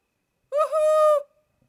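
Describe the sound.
A person imitates an owl with a single drawn-out hoot, calling to an owl in Alentejo, lasting under a second, clear and fairly loud against silence, with no talking.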